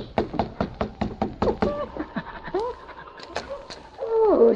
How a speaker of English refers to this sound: the two Mounties knocked on the door of Hazel's boarding house